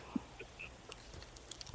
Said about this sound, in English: Um, flavor wise, and I'll yeah, let me take a sip now.